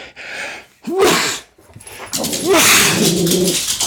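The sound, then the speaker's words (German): Two loud sneezes about a second and a half apart, each a sharp voiced intake followed by a harsh, breathy burst, with a noisy rustle lingering after the second; a person sneezing at a microphone because of an itchy nose. “Entschuldigung, da juckte die Nase, da musste ich niesen, da kam ich jetzt auch nicht mehr dazu, hier blöd am Mikro den Mutknopf zu drücken, deswegen musstet ihr das jetzt leider ertragen.”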